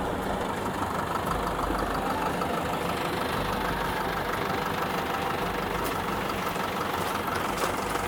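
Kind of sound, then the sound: vehicle, tractor engine idling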